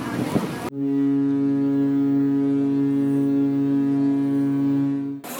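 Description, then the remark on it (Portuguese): The engine of a large, fast launch carrying many people aboard drones in a loud, steady low hum with buzzing overtones for several seconds, with some wind rushing over the microphone and brief voices at the start. “E como vocês podem ouvir, temos motor, temos vento e temos bastante gente a bordo.”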